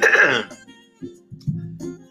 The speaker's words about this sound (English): clearing my throat, getting ready for this last last recording of 2020.